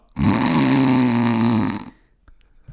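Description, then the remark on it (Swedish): A person imitates with their voice the snoring of someone in the next hotel room, heard through very thin walls: one long, rough, rattling inhale lasting nearly two seconds, followed by a few faint breathy sounds. “Så det ligger någon, något äckel bredvid där. I rummet bredvid. Bara snarkar.”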